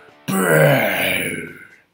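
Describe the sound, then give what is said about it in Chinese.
A voice imitates a giant's loud, growling roar that bursts in suddenly, holds for about a second and a half with a rough, gravelly tone, then trails off into quiet. “接着是一阵大吼，”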